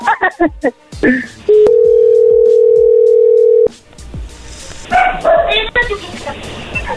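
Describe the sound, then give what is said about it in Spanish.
Voices break off and a phone line drops to a loud, steady dial tone, one unbroken mid-pitched hum lasting about two seconds, before talking and background chatter resume. “oye, perdón, se cortó.”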